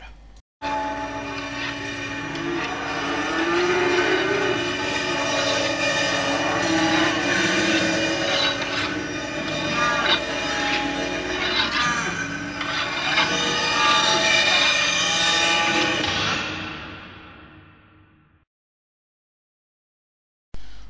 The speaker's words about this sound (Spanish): separar un poquito el bloque con algo de musiquita, alguna cosita de la banda de sonido de Texas Chainsaw Massacre